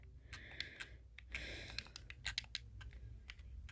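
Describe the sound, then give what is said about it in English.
Rapid, irregular clicking of computer keyboard keys, fairly quiet, with a brief burst of rustling in the middle and no talking. “Or even just a song out of just me clicking and doing all this stuff.”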